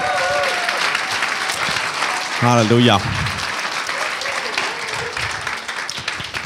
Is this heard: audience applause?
yes